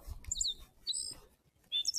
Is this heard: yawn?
no